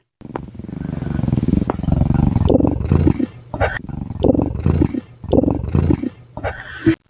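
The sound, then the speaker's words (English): A child imitates a kitten's purr, making a rough, rattling rumble in the throat that runs steadily for a few seconds, then breaks into several shorter bursts with brief pauses. “Um, I can purr. Like a kitten?”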